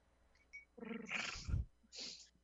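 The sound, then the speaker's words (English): A blindfolded woman in a limo imitates a cat's purr, a short breathy, rumbling vocal burst followed by a softer airy exhale, with no words spoken. “… begins to purr.”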